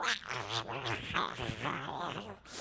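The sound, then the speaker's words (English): A voice makes garbled, crackly vocal noises for a few seconds, imitating a broken, scratchy phone speaker with distorted warbling tones and hiss, fairly loud. “If you can't understand it, if it is scratchy or if it is, you know, if the speaker on your phone is broken and it's going,”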